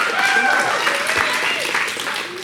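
A crowd at Four Points claps and cheers loudly to celebrate the many first-time guests that morning, a dense, steady wash of applause with whoops and voices calling out throughout, sustained without a break.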